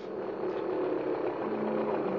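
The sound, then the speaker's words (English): A small putt-putt motorboat, stocked with canned goods and carrying a typewriter and duffel bag, runs steadily, a low droning hum with a faint chugging texture that holds at an even loudness throughout, with no voices. “I was given a putt-putt stocked with a supply of canned goods, stowed the typewriter and duffel bag, and at last I was off.”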